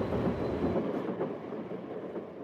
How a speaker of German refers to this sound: Und der Zug auf dem letzten Schienenstück von Thompson nach Churchill rollt er fast in Schrittgeschwindigkeit an den Sträuchern vorbei, die Schienen von Überschwemmungen häufig unterspült.